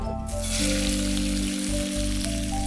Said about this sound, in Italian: Allora, il fumetto sempre con l'olio extravergine. ci mettiamo un po' di trito d'aglio. Va bene lo facciamo rosolare.